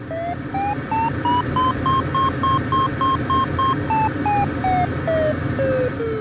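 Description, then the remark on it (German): A glider's variometer, which signals climbing or sinking, beeps in a quick run of short tones that rise in pitch, hold steady, then fall lower, over a steady rushing background noise; no one speaks. “Für die grobe Orientierung, ob es im Flugzeug hoch oder runter geht, gibt es den Variometer, der das Steigen oder Sinken anzeigt und akustisch durch hellere und dunklere sowie schnellere und langsamere Tonfolgen meldet.”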